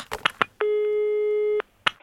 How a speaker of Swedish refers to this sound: Då, då, då ringer vi Länsförsäkringar igen då.